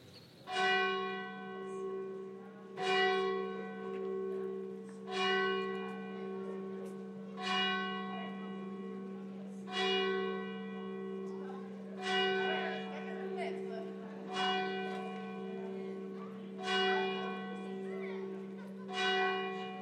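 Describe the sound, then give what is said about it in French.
Church bells of the 19th-century Saint-Roch church, in the heart of the Saint-Roch quarter, peal in a steady, repeating rhythm, each stroke ringing out with rich overtones over a constant low hum, clear with no voices. “On se retrouve donc en plein cœur du quartier Saint-Roch, qui a en son centre une église du 19e siècle.”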